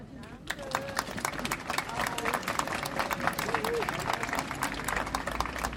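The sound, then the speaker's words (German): A crowd applauds steadily for several seconds to thank an event's organizers and performing artists, a dense patter of many hands clapping at an even, sustained loudness, with faint voices and cheers mixed in underneath. “Euch allen erstmal vielen Dank und einen besonderen Applaus.”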